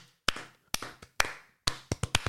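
A single person claps their hands about eight times in uneven bursts, each clap a sharp, bright smack with a short ringing tail and brief silences between. No one speaks.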